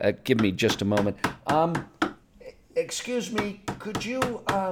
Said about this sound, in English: Uh, I apologize for the noise, but um, we're recording this week from Woodworker Laoren Shed.